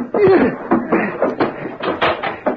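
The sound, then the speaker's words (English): A rapid flurry of heavy fist punches lands in quick, irregular succession, loud, mixed with a brief strained grunt as the fistfight scuffles on. “Don't hit me again.”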